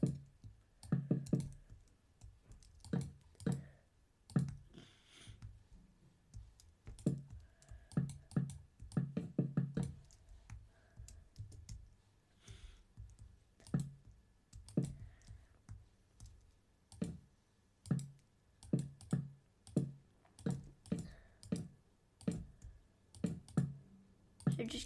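Computer keyboard keys clacking in quick, irregular bursts of presses, fairly loud, with soft talking underneath at times, as someone places blocks, sometimes pressing E instead of W.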